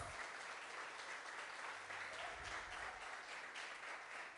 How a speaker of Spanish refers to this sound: Y así les recibimos con un aplauso, ¿verdad? Bienvenidos.